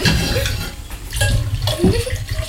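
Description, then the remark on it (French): Milk pours and splashes steadily from a one-litre bottle into a metal saucepan for a couple of seconds, a continuous gurgling stream with small bursts of splatter. “Attention Je sais pas par où on va faire sortir le lait.”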